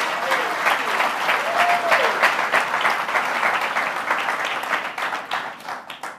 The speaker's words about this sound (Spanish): Gracias a los muchachos que del grupo de adoración, un aplauso al Señor, precioso.